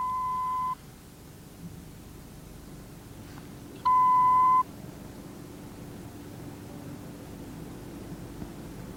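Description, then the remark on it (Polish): Two shrill electronic beeps from an electronic spy egg, set off when the egg is struck and a delicate spring inside vibrates, each a steady pure tone under a second long, separated by a few seconds over a low, continuous background hiss; the second beep is louder. “Uderzenie normalnie łamiące skorupę tu wyzwala drgania delikatnej sprężyny i jajko protestuje przenikliwym piskiem.”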